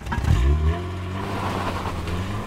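A Chevrolet car pulls away: a loud low engine surge at the start, then a steady, rumbling drone that holds level to the end, with no voices.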